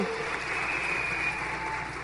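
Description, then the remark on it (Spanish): An audience applauds the Amway Business Institute in a dense, steady wash of many hands clapping, holding an even loudness for the full two seconds, with faint voices mixed underneath. “Un aplauso, por favor, para el Instituto de Negocios Amway, que ha avanzado un montón”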